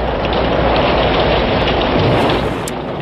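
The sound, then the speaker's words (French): Heavy tropical downpour roars steadily throughout, a dense wash of rain with a faint rumble of thunder underneath, loud with no voices; the tropical storm in Cuba on the day cosmonaut Yuri Gagarin arrived there in 1961. “Vous entendez, c'est l'orage parce que le jour où Gagarine a posé les pieds à Cuba, il y avait une tempête tropicale.”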